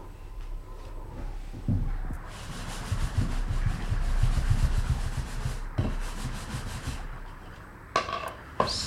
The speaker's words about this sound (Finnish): Siipirikko kuuraa hyräillen puisia maitoastioita.